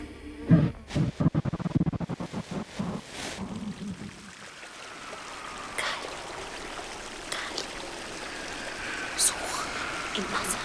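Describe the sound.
Steady trickling and splashing water from a fountain runs continuously at moderate volume, with a few sharp drips over it; brief murmuring voices come and go in the first few seconds.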